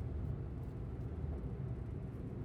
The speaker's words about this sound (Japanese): 南の運転する車は自宅に向かって走行していた